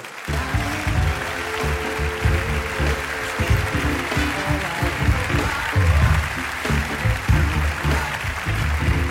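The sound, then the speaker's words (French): An audience in Montreux applauds loudly and steadily from start to finish, a dense wash of clapping mixed with cheering and whooping voices that swells in places. “Gardez vos applaudissements.”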